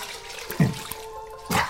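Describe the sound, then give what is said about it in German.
Cold tap water runs steadily with a hollow, ringing tone, broken by a couple of splashes as hands scoop it up to wash a face without soap in the morning, fairly quiet, with no talking. “Kaltes Wasser, keine Seife, jeden Morgen.”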